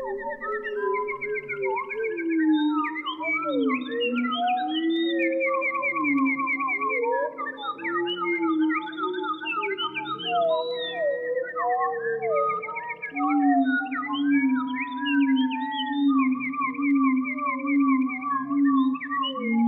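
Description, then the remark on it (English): Wood thrush song transformed with studio effects into a composition: layered, flute-like whistled phrases and trills overlap and slide in pitch, forming a continuous, fairly loud musical texture with no voices. Based on a recording of a single wood thrush near Mount Saint Hilaire, Quebec, Canada. “employed a few studio techniques and effects to create this composition based on a recording he made of a single wood thrush near Mount Saint Hilaire in Quebec.”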